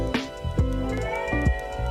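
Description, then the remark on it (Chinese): A cat meows in drawn-out, harmonic cries with wavering pitch, fairly loud and steady across the short moment, with some soft thumps underneath and no talking. “反正算了，猫咪救场。”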